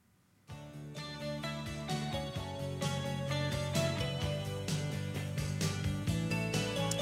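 A Thai pop song, one of the singer's very biggest hits, starts after a brief pause and plays loudly and steadily, with a full band, a regular beat and bright, layered instruments.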